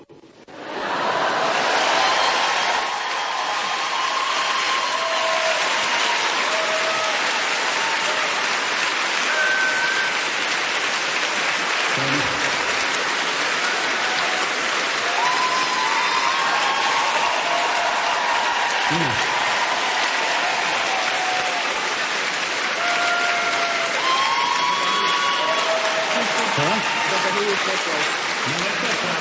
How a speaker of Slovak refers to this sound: Počúvajte, to, že ste celú svetu omšu netlieskali, ste sa slušne správali. A teraz to chcete dohnať.